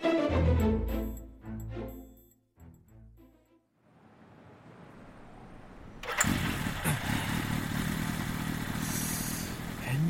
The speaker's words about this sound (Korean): 그 오토바이에 문제 생겼나 보네. 아, 안녕하세요. 아까까진 잘 나갔는데 갑자기 속도가 안 나서요. 안 나던 소리도 좀 나는 것 같고.